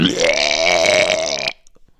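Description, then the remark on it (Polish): A voice imitates a choking gag: one loud, strained, guttural retch lasting about a second and a half, alone, then cut off into near silence. “wydała taki charakterystyczny dźwięk buzi. A, wiem, zakrztusiła się po prostu taki”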